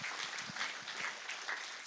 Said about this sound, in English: So, first and foremost, can we give a hand clap to those who actually serve in Promise Kids and Raw?